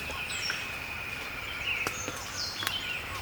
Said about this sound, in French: Pas de doute, nous sommes en forêt tropicale. des piques. D'autres oiseaux. C'est le chorus de l'aube.